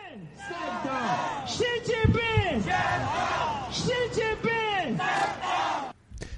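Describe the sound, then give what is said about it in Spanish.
A large crowd of protesters in Guangzhou, China, chants slogans in unison outdoors, including calls for Xi Jinping to resign: loud, rhythmic, repeated phrases with many voices rising and falling together, filling the whole span before cutting off abruptly near the end. “Escuchar eh, Xi eh. Jinping dimite eh, coreado por manifestantes es algo un poco raro, ¿no?”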